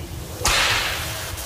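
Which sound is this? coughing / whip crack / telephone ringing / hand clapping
whip crack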